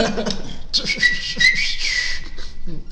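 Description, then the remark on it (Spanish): A person whistles a short, sharp, scary-sounding tune, a few quick rising and falling notes mimicking a street whistle, with some low mouth noise underneath. “Un chifleo de esos, mmm, pendejo, ya valió verga.”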